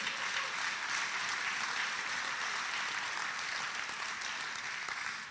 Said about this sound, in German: Gebt dem mal einen Applaus, es war wirklich gut.